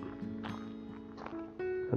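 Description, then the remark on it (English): A few irregular footsteps crunch outdoors as a person walks toward an edge, set against a steady low humming drone, with no one talking. “that's me walking towards the edge of the.”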